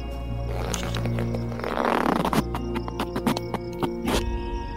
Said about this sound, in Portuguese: Que isso, cara? pum? Ué. Acho que foi o druida. Ele peidou e saiu? É isso mesmo?